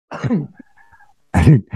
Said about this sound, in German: bist ja nur am Husten hier mal. Furchtbar.